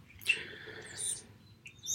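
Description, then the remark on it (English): Birds chirping outside a door, a burst of bright, high tweets and trills overlapping one another, over a low steady background rumble with no talking. “oh my gosh birds are going crazy outside my door”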